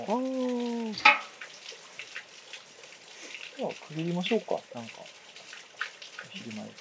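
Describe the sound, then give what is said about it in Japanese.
Water flows and rushes steadily, a constant hiss running through the whole scene, with birds calling, while a couple of people chat casually over it. “途中からなんだかただの雑談になってると思うんですけれども、まあ、水の音とね鳥の声を聞きながらする雑談が楽しくてでそれを編集するのもなんか楽しくてついでに残してみました”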